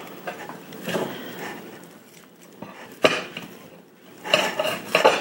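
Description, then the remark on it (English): A knife cuts a big rutabaga in half in a series of crunchy, scraping cuts, with sharp cracking bursts near the middle and end as the blade forces its way through. “And you have to use a lot of leverage to cut through a big rutabaga, by the way, guys.”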